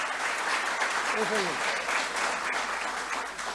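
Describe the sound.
A crowd applauds steadily and loudly throughout, a dense, even wash of clapping, with a brief voice rising faintly above it partway through.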